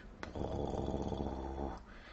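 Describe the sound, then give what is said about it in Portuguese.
A voice imitates a snore: one long, rasping, throaty rumble lasting about a second and a half, fairly loud, with no talking around it. “E o …, você só ouviu o ronco.”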